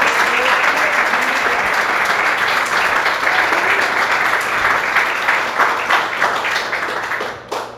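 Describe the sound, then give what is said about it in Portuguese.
A large crowd applauds steadily and loudly for several seconds, a dense wash of many hands clapping at once that tapers off near the end. A church audience claps in praise of the name of Jesus. “E as palmas que adorem o nome do Senhor Jesus.”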